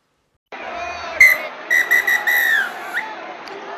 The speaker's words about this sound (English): And that's the final whistle.